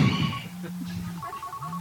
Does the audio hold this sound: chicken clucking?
no